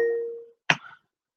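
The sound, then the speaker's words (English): A soft electronic reminder chime from an Alexa smart speaker rings and fades away over half a second, followed by a brief, sharp noisy burst, then silence. “Here's your reminder.”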